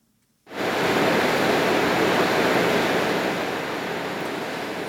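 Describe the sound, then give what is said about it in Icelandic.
The geothermal drilling rig Nasi in Reykjavík, Iceland, starts up abruptly after a brief silence for work on a hot-water borehole, then keeps up a loud, steady, hissing roar, broad and unbroken, easing only slightly toward the end. “Þeir sem búa og starfa í grendið Bórholt í Reykjavík verða venjast þessu hljóði næstu vikunar því að jarðbórin Nasi var ræstur í dag vegna framkvæmda við heitavas Bórhól í göttunni.”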